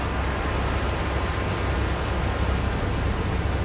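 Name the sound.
rushing river water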